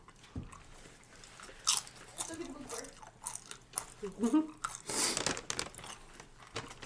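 Loud crunching and chewing of crisp, hand-fried chips made with corn masa flour, with sharp bites and a crinkling bag rustling intermittently over several seconds.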